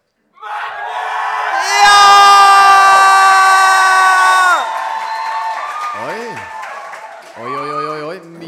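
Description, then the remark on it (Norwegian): A live festival crowd roars with cheers and whoops to vote for the best festival poem in a poetry contest, a dense wall of voices swelling loudly for several seconds, then easing into scattered shouts and high, sliding yells near the end. “Så den som får høyest lyd av dere når jeg sier et av navna, den vinner.”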